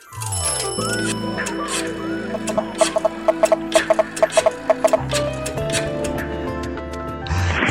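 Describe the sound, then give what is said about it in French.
A quick series of bright, trilling telephone rings bursts out in the middle, riding over a busy, sustained musical backdrop that continues on either side. “C'est votre téléphone, vos coordonnées sur le répondeur.”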